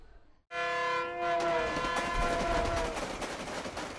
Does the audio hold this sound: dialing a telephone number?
no